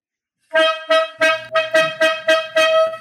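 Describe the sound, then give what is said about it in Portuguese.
A loud horn (corneta) sound effect sounds in a quick rhythmic series of about seven or eight short blasts, each bright and brassy, played alone with no talking. “Vamos chamar a corneta aleatória.”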